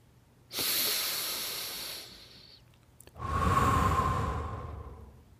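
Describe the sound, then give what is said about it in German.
Two deep, audible breaths: a long, airy inhale followed by a fuller, slightly lower-pitched exhale, each lasting about two seconds, with no talking. “Und mach ein bis zwei kräftigere Atemzüge.”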